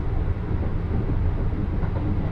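A local Joban Line commuter train running between Ishioka, Tsuchiura and Toride rolls steadily along the rails, a continuous low rumble with a dense, even texture, no voices present.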